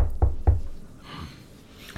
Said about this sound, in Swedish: Sen knackar jag lite i bordet.